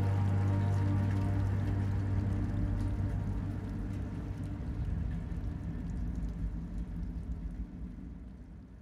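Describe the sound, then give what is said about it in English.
Steady rainfall hisses continuously, accompanied by a deep droning hum that fades partway through, leaving a dense, even wash of rain and low rumble. No voices. “Their lips meet in a wet collision among the rainfall, then part,”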